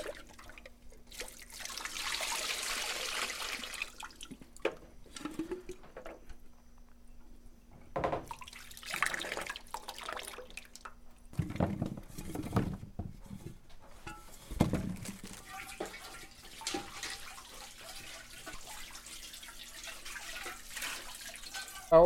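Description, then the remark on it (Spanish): Cold water is poured and splashes over pacaya palm flowers in a container to make peeling their husks easier: a steady rushing stream in the first few seconds, followed by intermittent splashing, dripping and handling sounds, moderately loud. “Ahora le vamos a tirar el agua a nuestras patallas para que se nos haga más fácil la limpiadita de la cáscara.”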